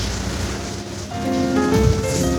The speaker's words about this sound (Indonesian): nah di dalam apa studio kita amazing ya Amazing. Amazing. Hujan ada, hmm. petir ada.